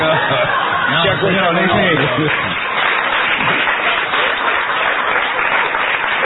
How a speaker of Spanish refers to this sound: cuánta gente que aplaude, ¿eh?